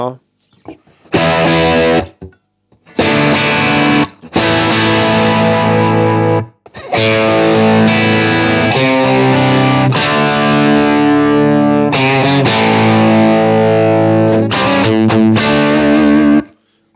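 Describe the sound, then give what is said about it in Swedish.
Heavily distorted electric guitar played loud through a cranked Plexi amp setting, with thick sustained chords in several bursts separated by brief pauses, crunchy and saturated with a full, dense tone. “Men just när man crankar dem så här så låter det inte plåtigt”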